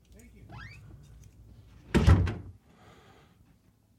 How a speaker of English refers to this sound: Sorry, um, it was somebody at the door.